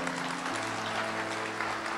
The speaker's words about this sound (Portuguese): Diga amém, aplauda o Senhor, faça alguma coisa.